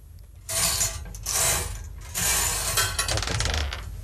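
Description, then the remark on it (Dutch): A bingo wheel is spun, giving a loud mechanical whirring rattle that surges in several waves, then breaks into a run of rapid ratcheting clicks that slow toward the end. “Eh, laatste bingo. Zal ik even. Eh, zal ik nog een keer draaien?”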